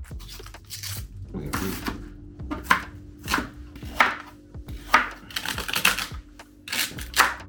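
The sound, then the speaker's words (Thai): A knife chops vegetables for a stew on a cutting board in a steady series of sharp taps, roughly a dozen strikes with brief pauses between bursts. “ส่วนประกอบของสตูเนาะเราก็มีหัวหอมนะครับ หั่นเสร็จแล้ว”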